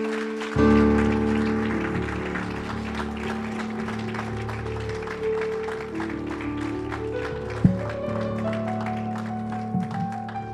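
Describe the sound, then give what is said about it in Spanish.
Congregation applause offered to the Lord: a dense, steady stream of clapping that starts abruptly and carries on throughout, layered over sustained, held keyboard or organ chords. “Dele fuertes ofrendas de palmas al Señor.”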